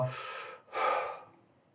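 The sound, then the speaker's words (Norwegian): Two forceful breaths in close succession, a breathy rush followed by a stronger exhale that trails off, with no talking, demonstrating Wim Hof's breathing before holding the breath on the exhale. “Men eh, Wim Hoff holder jo den på utpust, så han gjør jo”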